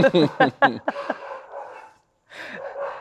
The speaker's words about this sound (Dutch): Zoals die hond ook zegt.